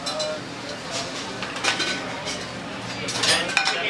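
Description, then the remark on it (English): The busy kitchen of Hearth, a fairly new restaurant in Saskatoon, clatters with dishes and cutlery, irregular bright clinks and scrapes over a steady wash of background noise, with indistinct voices murmuring underneath. “okay, so right now I am in a very busy kitchen.”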